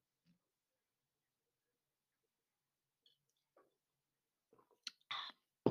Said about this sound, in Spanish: Le voy a dar un trago a mi café, nuevamente, y con su permiso, ¿eh?